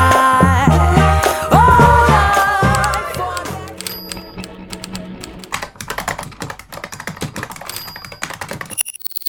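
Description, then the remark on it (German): Music fades out and gives way to a rapid, uneven, fairly loud clatter of typewriter keys, with a few brief high tones mixed in and a sharp burst at the end. “Tippen, Tasten, Funken, Radio.”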